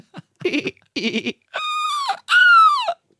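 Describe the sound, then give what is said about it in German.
A person imitates a seagull: two short, choppy squawks followed by two longer, loud, high-pitched nasal cries that hold steady and then drop slightly at the end. “War eine Möwe.”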